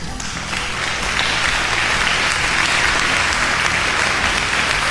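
A crowd claps steadily, a dense wash of applause that swells in the first second and holds loud and even to the end, with no voices standing out.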